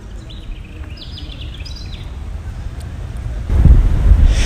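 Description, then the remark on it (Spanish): Outdoor street ambience on Carlos C. Restrepo street, at the start of the entrance to the west of the city, with heavy wind buffeting the microphone, a steady low rumble, and faint high chirps early on, then a louder gust or passing vehicle swelling near the end. “Así suena Carlos C. Restrepo, empezando el ingreso al occidente de eh, la ciudad”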